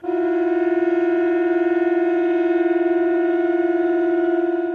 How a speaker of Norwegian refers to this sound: Men siden 30-tallet er det nettopp denne sirenelyden fra såkalte tyfoner som har varsla store deler av innbyggerne i Norge om viktig melding lytt til radioen. Systemet styres via FM-nettet, men når DAB overtar, må anlegget bygges om eller byttes ut